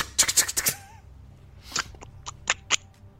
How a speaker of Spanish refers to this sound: Ahora sí, va corriendo así. Así con los, con los brazos en el, en el pecho, así como te dicen que corras en la primaria, que nunca lo vuelve a hacer en su vida. Con pues sus de hombre brincando. Se ven, si sí, es que escuchan los pasos.